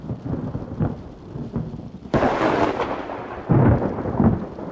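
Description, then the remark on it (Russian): Rolling thunder over steady rain: a low rumble builds, then a loud, sharp crack hits midway and a second heavy swell of thunder rumbles in near the end. “Очередная вспышка молнии осветила приближающийся на полной скорости локомотив.”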